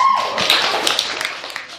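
A short burst of audience applause, many hands clapping together in a dense crackle that starts strong and gradually thins out over under two seconds.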